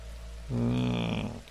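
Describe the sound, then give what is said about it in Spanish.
Steady rain patters on a surface as a constant hiss amid thunder, briefly overlaid midway by a loud, drawn-out low tonal groan lasting about a second. “entre todo el ruido ya existente de la lluvia, los truenos pero ese ruido viene, proviene de arriba.”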